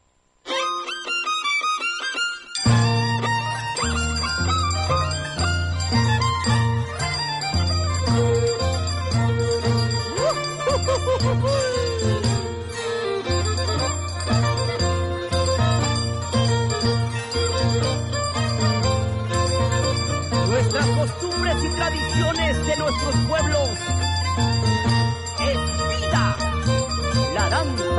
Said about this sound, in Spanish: Vamos a escuchar justamente de esta eh, mundialmente conocida danza de las tijeras, la tonada de las danzas de las tijeras.